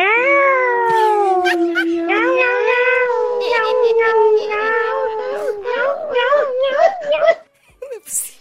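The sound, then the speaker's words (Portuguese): Two people, a couple, imitate cats yowling on a roof, their drawn-out, wavering meows sliding up and down in pitch, loud, continuing for several seconds before trailing off into a short breathy ending. “Hoje eu e minha namorada vamos cantar a música que os gatos cantam no telhado.”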